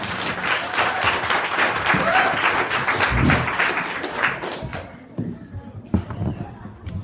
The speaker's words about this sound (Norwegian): Uh, ja, dere må gjerne gi det en klapp. Det er fint.